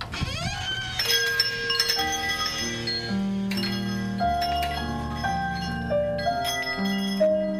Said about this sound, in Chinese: 开头的风铃声和开头的对话，表达出来的这个呃不明觉厉的这种意思，也不知道到底是在说啥。